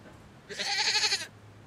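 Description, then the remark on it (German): A single goat bleats once, a bright, wavering cry lasting under a second, against a quiet background with no one talking. “Vor dem Haus hielt er an und ließ Estelle mit der Ziege aussteigen.”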